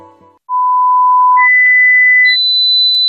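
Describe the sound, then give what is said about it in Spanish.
A sequence of loud, high-pitched electronic beeping tones that step upward in pitch, each held steadily, a piercing ringing whine with no voices, in an advertisement for Sonofim, a supplement for hearing. “Pitidos, Sonofim.”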